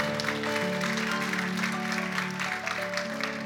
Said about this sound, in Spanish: ¿Cuántos dan un fuerte aplauso al Señor? Porque Él es bueno.